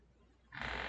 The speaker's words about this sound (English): That was the chair. that was not my butt.